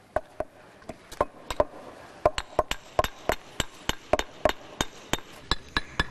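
Sharp, repeated hammer blows on stone ring out in a steady, fairly quick rhythm, about twenty strikes, loud over faint background noise, with no talking, as a 19-year-old construction worker lays paving stones a few metres from an archaeological dig beside a church.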